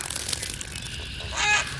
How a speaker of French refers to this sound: Aïe Attention On dirait qu'un oiseau s'approche de la surface de l'eau pour me croquer.